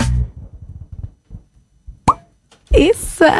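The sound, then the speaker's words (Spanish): A single sharp cork pop bursts out of a premium bottle of La Fuerza white vermouth (Bermud Blanco), with low murmuring voices before it and animated talking right after. “Tiene corchito esta bermuda, además.”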